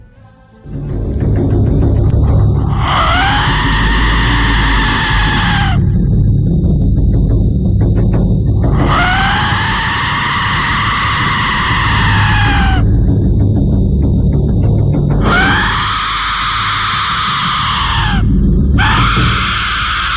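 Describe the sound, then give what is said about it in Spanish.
Four long, piercing blasts from a war whistle, each a loud, wavering shriek like a human scream, rising over a constant low rumbling roar, with brief gaps between them. “Imagínese que usted está ahí solo en una batalla y frente a usted sus enemigos vienen 100 y esos 100 cada uno tiene un silbato, un silbato horrendo que suena como esto.”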